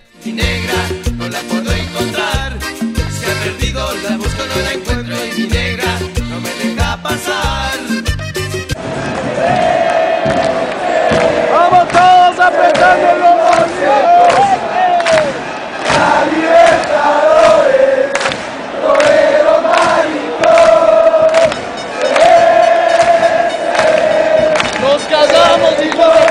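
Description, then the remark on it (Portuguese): A big crowd of football fans in Ecuador chants a rowdy, provocative terrace song taunting rival club Barcelona, voices in loud unison sustained and rising over steady drumbeats, after an opening stretch of rhythmic pounding and clatter. “E agora a gente vai ouvir mais um tema provocativo ao Barcelona, mas que também vale né, para os outros clubes rivais no Equador.”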